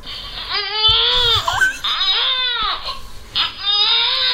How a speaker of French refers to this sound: Qu'est-ce qu'il lui ont fait bébé pour qu'il pleure comme ça